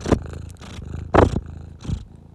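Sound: cat purring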